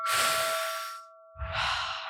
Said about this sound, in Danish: vil du tage en dyb vejrtrækning med os? Ja, ja. Lad os lige gøre det.